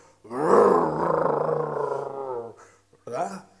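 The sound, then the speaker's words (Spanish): A voice imitates the loud, roaring engine of the church van, faulty because its catalytic converter was stolen, with a sustained, rough, growling tone for about two seconds, then a brief second rev-like burst after a short pause. “Cuando usted se montaba en esa van y la prendía eh, eh, con, el desperfecto, se escuchaba luego, luego, pero fuerte, como si fuera una motora de esas grandotas y, le da el acelerón.”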